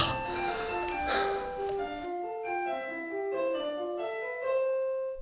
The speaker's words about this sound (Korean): 아, 종쳤다.